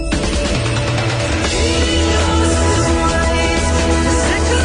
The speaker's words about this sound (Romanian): E rock progresiv grecesc.